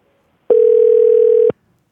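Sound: telephone ringback tone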